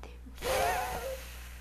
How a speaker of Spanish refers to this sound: Y tomo otra respiración y exhalo fuertemente.